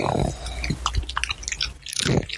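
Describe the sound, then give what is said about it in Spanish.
A dog crunches Doritos chips: crisp chewing, a quick irregular run of crackly bites and snaps with brief low thumps at the start and end. “los perros no procesan la gomita, pero por ejemplo, escucha los doritos.”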